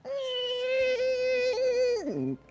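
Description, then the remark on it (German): A voice imitates the creaking of a body slowly pushing itself upward: a single drawn-out, strained, whiny tone that holds steady for about two seconds, then slides downward and cuts off. Fairly loud. “Du stoßt dich langsam nach oben und du hörst das Knarzen so.”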